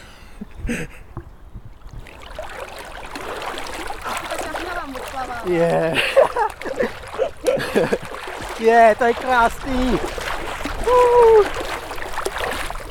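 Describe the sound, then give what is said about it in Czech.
Steady splashing of water as someone swims one-handed in a sand-pit lake while holding a recorder, a continuous churning wash that runs under several people talking and exclaiming throughout. “To no když budeš plavat s jednou rukou.”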